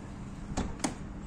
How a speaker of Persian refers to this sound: بفرما اینم درب باز بدون کلید بدون ریموت